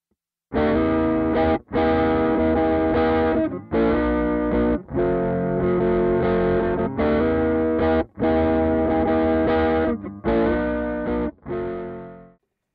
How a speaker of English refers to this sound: Let's take a look, same guitar, same amp, at the Soul Foods Drive Sound.